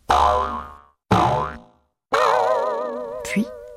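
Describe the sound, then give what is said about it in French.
Three loud cartoon boings in quick succession, each a springy twang that fades out, the third one longer with a wobbling, warbling tail. No voices are heard. “Le radis, lui, fit quelques bonds.”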